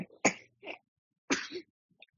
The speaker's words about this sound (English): Ooh, there's my little man coughing, and I think that's going to set the entire tone for the entire podcast.